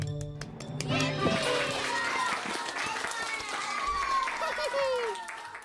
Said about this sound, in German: Bei uns klatscht das ganze Studio für euch zwei